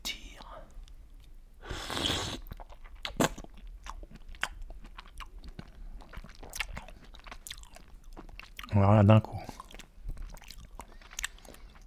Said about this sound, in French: Décaloter le petit pied, porter l'huître à sa bouche et la déglutir.